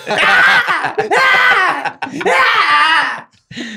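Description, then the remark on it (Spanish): A bobcat screams loudly three times in quick succession, each cry a harsh, wavering wail that rises and falls, with no talking. “Y lo que estamos viendo es el grito de una osa real para los que son de allá o un o gato montés para los que somos del el resto del país.”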